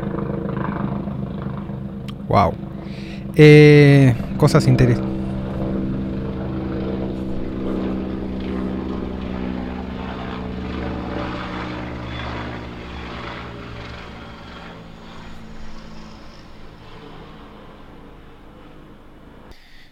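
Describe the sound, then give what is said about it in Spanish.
A helicopter drones overhead with a steady, throbbing engine hum that slowly fades as it moves away, heard through an open window facing the inner courtyard of a city block; a man briefly exclaims and speaks near the start. “Eh, da al pulmón de manzana, por lo cual no hay ruido en general, salvo el helicóptero que acaba de pasar.”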